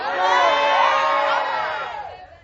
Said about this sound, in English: Yeah, the, the, my friends are shouting.